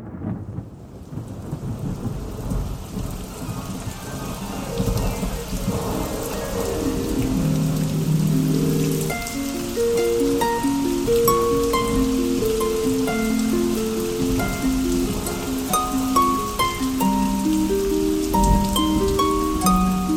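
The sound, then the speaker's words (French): Steady rain patters continuously with a low rumble beneath it, while a slow, gentle melody of sustained tones plays over the downpour. No one speaks. “Une goutte de plus parmi vous, une goutte de pluie ou une larme de plus sur les joues de notre planète Terre.”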